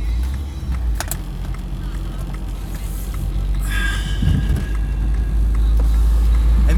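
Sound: inside a car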